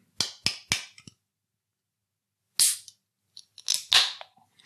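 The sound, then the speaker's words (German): A can of beer is opened: a few sharp metallic clicks, then the crack of the tab and short bursts of fizzing hiss. Nobody speaks. “Wir fangen natürlich mit dem guten Kio Dosenbier an.”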